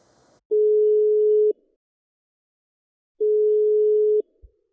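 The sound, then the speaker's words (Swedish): A telephone ringback tone on an outgoing call to Sundsvall: two steady, one-second beeps separated by a pause, clear, followed by a faint click as the line picks up. “på eh, kaffepausen här så ringde jag upp till Sundsvall”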